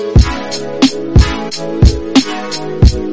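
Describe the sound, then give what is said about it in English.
A polished, professionally mixed hip-hop beat plays alone: heavy kick drums thump on a steady pattern with crisp snare hits between them, backed by sustained melodic chords, loud and clean. “So if you're a producer or you're an MC or even a singer and your beats sound like this, and you want them to sound like this,”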